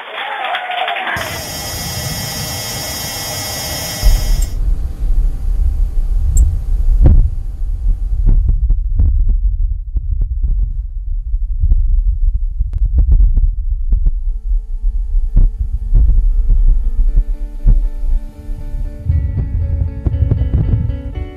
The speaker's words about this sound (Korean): 며칠 전 나사가 공개를 했죠. 탐사 로봇 퍼서비어런스가 녹음해서 보내온 화성의 바람 소리 들려드렸습니다.